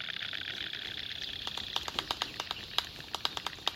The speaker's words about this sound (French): on pourrait croire à des castagnettes. Il s'agit en réalité d'une cigogne blanche qui revient au nid. Un adulte rapporte des branches et des herbes pour consolider le foyer.